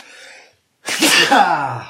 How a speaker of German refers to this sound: äh, ich muss, muss hart niesen, Moment.